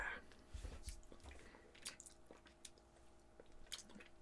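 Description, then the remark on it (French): Someone chews a mouthful of caramel-filled chocolate, making soft, wet, irregular squishing and smacking sounds with occasional crisper clicks, fairly quiet and with no talking. “Je pense que je vais à bouche pleine de chocolat.”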